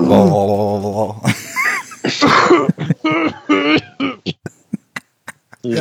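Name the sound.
throat clearing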